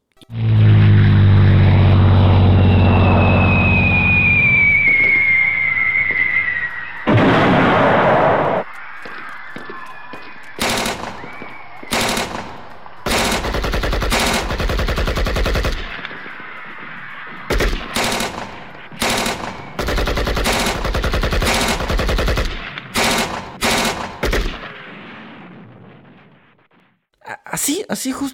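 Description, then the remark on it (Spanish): Battle sound effect: a loud droning aircraft with a rising whistle gives way to sharp, irregular volleys of machine-gun fire and blasts, intense, for about twenty seconds. “como lo escucharon, es una batalla entre microorganismos y sistema inmune.”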